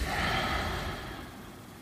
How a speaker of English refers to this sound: adding the sound of your breathing. Inhaling, exhaling through your nose.